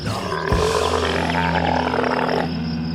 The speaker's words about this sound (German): Richtig, das war ein Kamel.